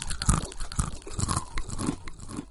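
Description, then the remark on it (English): Loud, close-up crunching of a crisp snack being chewed, with repeated crackly bites in an uneven rhythm and no talking. “Okay. Now you have a solo crunch.”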